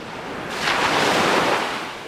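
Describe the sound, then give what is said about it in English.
Ocean waves crash onto a beach in Cancun, Mexico, a broad roar of surf swelling and breaking once before washing back, loud with a constant hiss underneath and no voices. “Waves crash along Cancun's famed beaches.”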